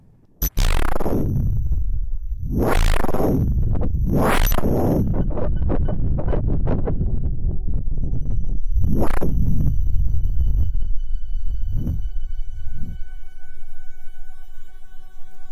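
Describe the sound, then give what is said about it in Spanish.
Indigenous Mexican instruments: a deep huehuetl drum beats irregularly while shrill, rushing tones from a black whistle and a wind whistle swell and scream in loud bursts, and a steady atecocoli conch tone holds underneath in the later half. “Instrumentos autóctonos, huehuetl, silbato negro, silbato de viento, atecocoli.”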